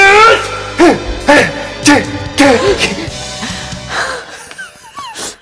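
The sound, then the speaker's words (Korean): A voice imitates the heavy, rough panting of a high school boy playing basketball on a school playground: a string of loud, breathy, voiced gasps roughly every half second, tapering into a few fainter wheezing breaths at the end. “저 멀리 운동장에서 남자애들이 농구를 하고 있었는데, 어우 유독 숨소리가 거친 한 남자애가 있더라고요.”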